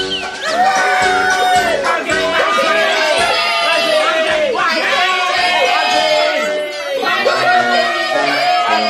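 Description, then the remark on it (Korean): A crowd of watching goblins cheers and shouts loudly and steadily for about nine seconds, many overlapping voices rising and falling in pitch, with whoops breaking through the dense roar. “왕자와 공주가 도깨비 신께 혼인을 약속하며 증표를 주고받자 지켜보던 도깨비들이 환호성을 질렀다.”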